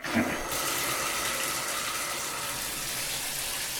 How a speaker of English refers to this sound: Okay, that's uh, beginning to fill up. Kind of what you expect from a bathtub. Yeah, it's filling up pretty nicely. I'm going to turn off the, the faucet here for a second.